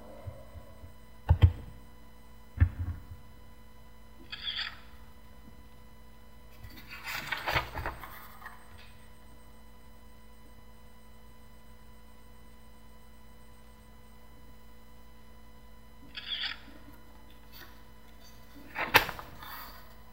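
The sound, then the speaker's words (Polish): A document scanner gives short, sharp clicks at irregular intervals as pages are turned and captured after pressing the space bar, some bunched closely and others spaced seconds apart, over a steady low electrical hum. No one speaks. “I teraz y, w zasadzie naciskam spację i będę te strony przekładała. Będzie słychać, jak on będzie cykał.”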